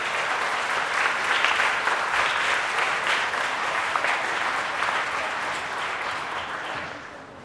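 A church audience claps warmly and steadily to welcome a high-school girl, who is to be baptized that day, to give her testimony; a dense wash of many hands holds strong for several seconds before tapering off at the end. No one speaks.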